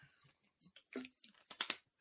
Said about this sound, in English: Okay, I, I, think I need to get a sip of water first after all that Jack Conklin conversation.